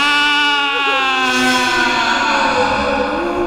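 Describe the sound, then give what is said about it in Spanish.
A human voice lets out a long, loud imitation of a howl, one sustained wailing note that wavers and slides in pitch, siren-like, heard alone without other sounds. “La hijada tiene su ritmo y la tralla y el grito y el aullido”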